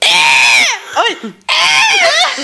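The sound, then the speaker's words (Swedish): A person imitates a heron's harsh, honking call: two loud, raspy, dry squawks with a short vocal interjection between them. “Eh, min, min, mitt så spirit animal, häger, den är ju eh, den är så vacker men också mm. jävla klumpig och så här, mm. den låter typ så här.”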